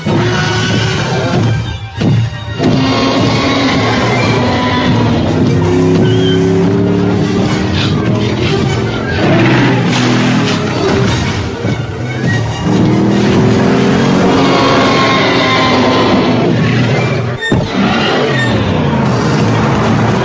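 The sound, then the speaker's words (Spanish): A powerful vehicle engine in Jeep's Super Bowl 52 TV commercial for the new Wrangler roars loud, its pitch climbing and falling in repeated revving sweeps over a dense, busy mix of rumbling background sound, with no talking. “Amigos, estamos de regreso aquí en Capital Motor y bueno, estábamos escuchando justamente el comercial, ¿no? Que lanzó Jeep para promocionar la nueva Wrangler Poncho en el Super Bowl 52”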